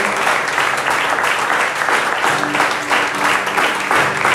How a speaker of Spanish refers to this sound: Dale un aplauso a nuestro Dios. Porque yo creo que es bueno.